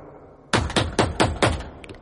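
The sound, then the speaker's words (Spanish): Five firm, loud knocks on a door in a quick, steady rhythm after a moment of quiet, with a couple of faint taps trailing at the end. “No, y, y, y, toca, ¿Cómo tocaron la puerta?”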